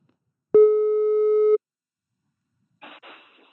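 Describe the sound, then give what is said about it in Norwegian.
A single steady telephone ringing tone sounds for about a second, clear, as someone calls a friend, then silence, followed by a brief rustling clatter like a receiver being picked up. “Ok, jeg skal bare ringe noen venner for å høre litt insidertips om budrunde.”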